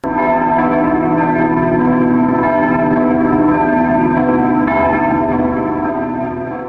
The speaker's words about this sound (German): Am Kar-Samstag ertönt dann wieder die Kirchenglocken. Beim ersten Läuten sollte man, um eine reiche Ernte zu erhalten, die Obstbäume tüchtig schütteln.